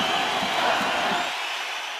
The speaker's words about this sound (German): Diese Begeisterung haben sie mit viel Jubel, Trommelwirbel und Geschrei ausgedrückt.